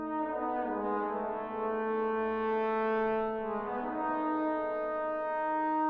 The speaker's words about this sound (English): But you know, you hear these horns, which were indeed recorded in an enormous cathedral to get that immense echoing sound, you know, where the echo is almost another voice in the polyphony.